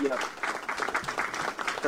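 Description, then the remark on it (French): A short burst of canned applause for a caller who won a book in a game, a dense crowd-like patter of clapping at moderate volume, with a voice talking over it near the start. “t'as gagné, tu repars avec ton bouquin, je te vois les applaudissements.”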